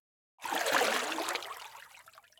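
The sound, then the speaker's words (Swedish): Splashing and trickling of cold lake water as hands are washed, starting abruptly and continuing steadily for a couple of seconds, with no voices. “Han tvättade sina händer i det kalla vattnet och gick nöjt tillbaka till stugan.”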